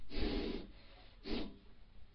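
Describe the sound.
A person imitates the angry snorting breaths of a child in a fit of anger: two forceful, noisy exhalations through the nose, the first longer and the second shorter, fairly loud with no talking.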